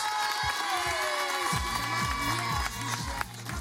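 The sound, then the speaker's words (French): A studio audience at the Fréquence Plus radio show applauds and cheers continuously to welcome a guest, a dense wash of clapping with whoops and shouts, loud throughout with no pauses. “tu marches trop vite, prends le temps, de profiter des applaudissements.”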